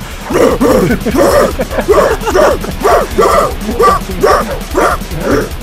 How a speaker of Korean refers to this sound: 실제로 여기에 있는 보컬은 개가 두 마리예요. 두 마리인데 어디서 갖고 왔냐? 안락사를 당하기 직전, 그러니까 하루 전에 개를 보호해주는 보호소에서 데리고 왔답니다.